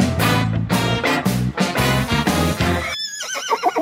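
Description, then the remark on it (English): A short, loud musical jingle for the Daily Winnie segment, with a horse whinny woven through it and thumping bass notes underneath, finishing with a high, quavering neigh standing alone. No one speaks. “I almost, I just, I almost need to hear the music again.”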